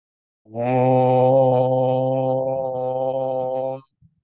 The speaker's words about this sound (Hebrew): האום הזה שסיימנו איתו, ההודים מאמינים שיש לו השפעה רוחנית עמוקה, לכל הפחות יש משהו ברטט של המם ושל האו, שלפעמים מרטיץ את הלב שלנו, אז אפשר לנסות את זה, כן, זה תרגול נחמד לעשות את האום הזה, לראות איך זה משפיע